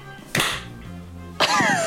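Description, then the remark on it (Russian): Two sharp hand claps about a second apart, made to sync audio for a recording, each a loud, bright smack with a short ringing tail. A low steady tone hums faintly between them. “Да, нам хлопнуть просто надо.”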